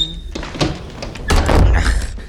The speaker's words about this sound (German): hey, die Tür! Mann, der Luftzug haut die Tür glatt kaputt, wenn wir nicht aufpassen. Hat ja keiner gehört.